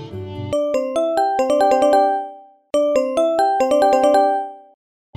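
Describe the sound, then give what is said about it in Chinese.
A melodic phone ringtone for an incoming call from a father plays a quick run of bright, chiming notes, pauses briefly, then repeats the same tune a second time. It sounds clear and alone. “这一天呐，他的父亲就打电话来了。”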